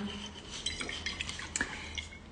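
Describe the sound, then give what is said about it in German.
A drink is poured into a glass, with light glassy clinks and taps scattered through a couple of seconds and no voices. “Ich schütte mir mal eben was ein.”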